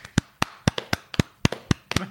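A few people clap their hands close by, a short burst of about a dozen sharp, slightly uneven claps over a couple of seconds.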